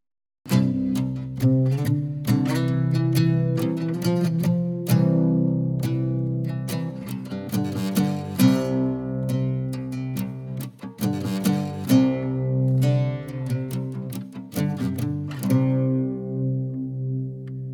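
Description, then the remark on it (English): A 1915 Gibson mandocello played solo, with plucked and strummed notes ringing out in rich, low, resonant tones. The playing is steady and moderately loud, with no voices. “That's the sound of one of my favorite instruments, my 1915 Gibson Mandocello.”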